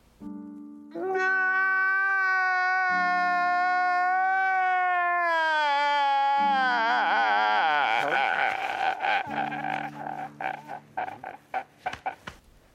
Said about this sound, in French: euh, bah, il pleure.